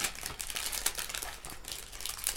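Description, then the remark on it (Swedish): Continuous crinkly rustling of sheet mask packaging, a busy mid-level crackle with sharper bright crinkles scattered throughout, steady across the whole stretch with no voices. “Jag prasslar för mycket ja, nu.”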